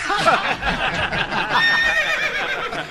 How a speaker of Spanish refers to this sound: Ahí está el caballo, se quedó fuera.